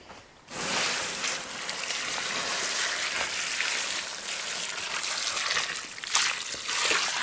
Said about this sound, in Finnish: Kun ollaan tässä nyt makkarat paistettu, niin sitten on tärkeää, että nuotio sammutetaan ja otetaan tuosta järvestä vettä.